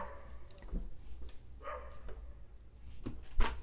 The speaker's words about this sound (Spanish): Ah, no, sigue ladrando el perro. Mira, el perro no se va, no se va a callar.